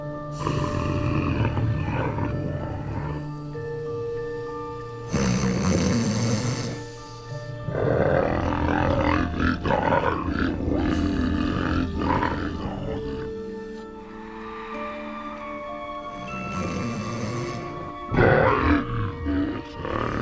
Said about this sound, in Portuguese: Cara, aquela cena que tá ele roncando lá, cara, dormindo assim, tipo, igual uma criancinha fofinha. Aí o cara ronca assim com aquele grunhido do inferno lá, cara, é muito bom.